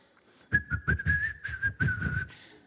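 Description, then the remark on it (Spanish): A person whistles a short, lively tune, a quick run of connected notes lasting about two seconds, with no talking around it. “¿Has visto a alguien silbando mientras trabaja?”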